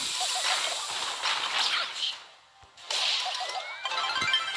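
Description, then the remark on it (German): Rapid bursts of sharp, crackling video game gunfire, loud, fill the air in two dense volleys separated by a brief lull. “Ups, noch bin Schüsse.”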